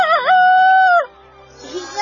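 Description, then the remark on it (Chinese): A voice imitates a rooster's crow as a demonstration for young roosters learning to crow: a loud, harmonic, wavering cry that rises, dips, then holds a long steady high note before cutting off, followed by quieter vocal sounds. “必须要学会打鸣，大家看我的示范。”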